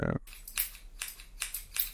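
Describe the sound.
A father imitates scissors snipping with his voice for children to guess in a sound-guessing game: a series of short, sharp hissing bursts in a steady rhythm, about five crisp snips, after a brief low vocal sound at the start.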